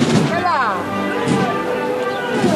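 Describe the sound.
A few sharp knocks from the metal hammer knocker of a pallium float in a religious procession strike wood amid a loud, continuous crowd of voices, the strikes partly buried under the chatter and calls.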